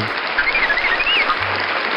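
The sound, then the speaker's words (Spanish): Steady applause from a crowd, a dense wash of clapping that holds at an even level for the whole stretch, with a faint whistle or squeal running over it. “Ahí está, ahí está, está un aplauso.”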